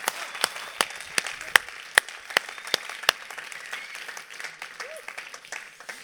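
Audience applause for a performer welcomed onto a stage in Bern, with a steady patter of claps, a few sharp, loud individual claps standing out in the first three seconds before the clapping settles into a softer, denser ripple.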